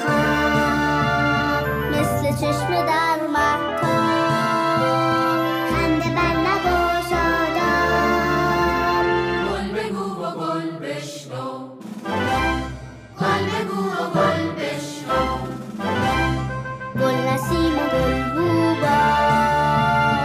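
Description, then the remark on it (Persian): A Persian-language children's song plays loudly and steadily with bright melodic accompaniment, briefly thinning out about midway before the full music returns and carries on to the end. “امیدوارم از شنیدن این سرود لذت برده باشید.”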